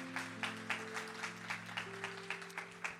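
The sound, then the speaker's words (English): A church audience claps for the Lord in unison, a steady rhythmic beat of about three or four claps per second, with sustained low musical tones held underneath throughout. “Come on, give the Lord a strong hand clap if you're understanding this.”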